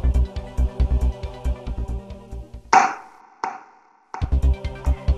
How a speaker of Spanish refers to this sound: No es una pelota de tenis. No, no, es un corcho de vino.